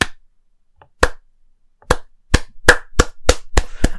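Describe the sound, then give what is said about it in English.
Scattered applause in a room of people holding wine glasses, after a speaker declares he will lead the party and become the next Prime Minister: about nine sharp hand claps, widely spaced at first, then quickening into an uneven patter as more join in. No talking. “and then uh, a, a, set of applause uh, breaks out.”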